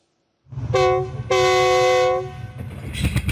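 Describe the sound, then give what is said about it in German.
A train carrying a clinic on rails through South Africa, 19 carriages and 350 metres long, rumbles and sounds its horn, a short blast followed by a longer sustained one, before the rolling clatter of wheels on rails takes over. “Wenn dieser Zug auftaucht, kommt mit ihm die Hoffnung, sagen sie hier.”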